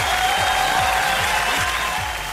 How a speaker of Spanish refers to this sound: Así que ahora sí, aplausos para ella.